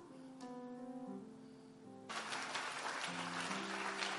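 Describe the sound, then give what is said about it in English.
Sustained keyboard chords play, then an audience suddenly bursts into loud, dense clapping halfway through, the applause continuing over the music to the end. “You better increase that clap offering.”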